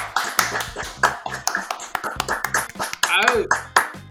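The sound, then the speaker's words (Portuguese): Several people clap in a quick, steady patter for a few seconds, sharp bright claps mixed with cheerful voices and a rising whoop near the end. “salva de palmas.”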